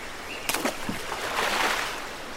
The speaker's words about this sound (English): First, let's paddle on the right side. Dip the oar into the water and then quickly swing it backwards to move the canoe forward.